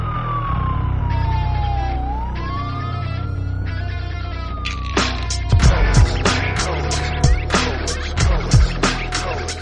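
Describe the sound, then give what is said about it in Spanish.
A spoiler-alarm sound effect: a wailing siren sweeps down and back up in pitch over rapid electronic pulsing, then gives way to a dense burst of clattering, chaotic alarm effects and crashing noises. No one speaks. “Esta vez le toca a Soldado Universal, una película de 1992 y como es correcto, es mi deber encender la alarma de spoilers.”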